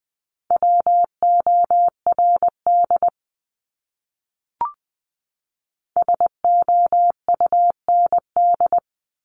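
A single steady tone keyed into quick Morse code dots and dashes at 20 words per minute, spelling out words in two bursts separated by a short pause with a faint click, clear with no voices.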